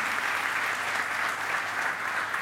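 Sustained audience applause for a volunteer, a dense crackle of many hands clapping steadily at an even, fairly loud level for the whole stretch, with no voices standing out.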